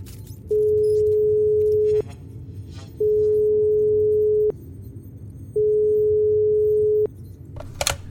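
phone call ringing tone

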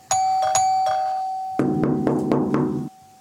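doorbell ringing

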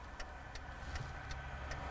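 car driving past

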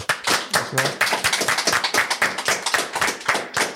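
studio applause

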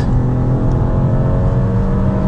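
car engine revving

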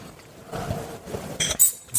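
wine glasses clinking

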